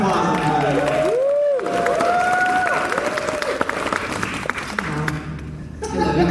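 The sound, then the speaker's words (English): A crowd breaks into sustained, loud applause that fills the whole stretch, dense clapping mixed with high whoops and cheers rising and falling over it. “Big round of”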